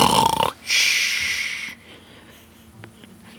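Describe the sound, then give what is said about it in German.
A person imitates the loud snoring of two people sleeping in a tent after a meal, with a harsh, rasping inhale followed by a noisy, hissing exhale, alone, then quiet. “Ja, ihr beide habt ganz schön dolle geschnarcht.”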